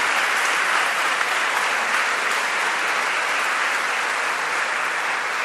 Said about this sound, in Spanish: Otro aplauso al comité, otro aplauso.